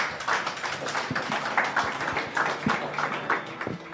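Steady applause from an audience, a dense wash of many hands clapping with a few sharper individual claps standing out, holding at an even level throughout with no voices.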